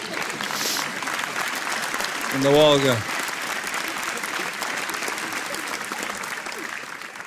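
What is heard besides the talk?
audience applause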